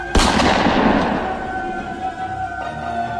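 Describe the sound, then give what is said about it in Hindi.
A single loud gunshot from inside a room cracks sharply near the start, then rings out in a long echoing tail that fades over a few seconds, with a low steady drone underneath and no voices. “पर उसकी घबराहट की सीमा तो तब पार हो गई जब अगले ही पल उसको उसी कमरे से एक जोर का गन शॉट सुनाई दिया”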